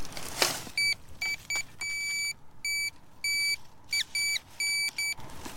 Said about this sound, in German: bevor er überhaupt den Detektor einschaltet. Kurz darauf schlägt das Gerät wieder aus. Man hört es also sehr deutlich.